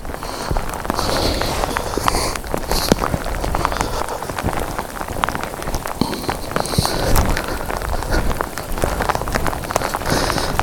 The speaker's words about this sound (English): The good thing is about these rain squalls is they tend not to last too long. So if I just find a rock to sit under, it should pass.